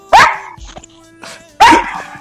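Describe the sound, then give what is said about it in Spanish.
Marina's dog barks twice, two loud, sharp barks about a second and a half apart, with only faint background noise in between. “Bueno, ah, ahí está el perro de Marina, me parece.”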